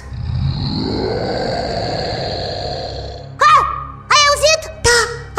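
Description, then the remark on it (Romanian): A low, steady rumbling growl fills the first few seconds, then gives way to several short, wavering howls from outside that rise and fall in pitch, fairly loud. “Cred că s-au speriat și ele de urle de afară”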